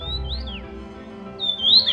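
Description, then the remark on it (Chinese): High, bright calls of a Taiwan yuhina, a bird whose call is said to sound like "tu mi jiu": a short whistled phrase at the start, then a louder, rising sweep near the end, set over a low steady hum with no talking. “那你们有没有听过叫声是兔米酒的小鸟呢？”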